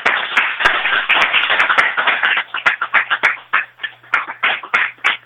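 A crowd applauds steadily, many hands clapping in a dense, crackling wash that stays loud for several seconds, with a few sharper individual claps standing out and a faint low hum beneath.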